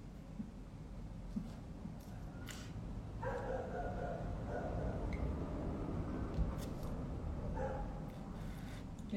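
A dog barks a few times, short separated yelps spread over a steady low rumble of background noise.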